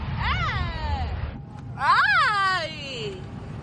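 A girl lets out two long, high-pitched screaming wails, each rising then sliding down, with a short pause between them, over a steady low engine-like rumble, in mid-flight aboard an airplane.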